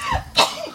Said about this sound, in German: Gesundheit